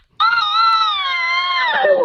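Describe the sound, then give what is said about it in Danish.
A baby lets out one loud, sustained high-pitched scream lasting nearly two seconds, holding steady before wavering and dipping in pitch at the end, with no talking over it. “selvfølgelig babyen.”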